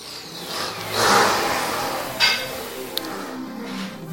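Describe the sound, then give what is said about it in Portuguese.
A motorcycle roars past, its engine swelling loudly and then fading away as it recedes, followed by a couple of brief metallic clinks against steady street noise. “Só esperando a moto passar, porque eu odeio moto.”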